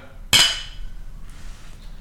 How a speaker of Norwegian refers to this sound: Skål. Vi skåler.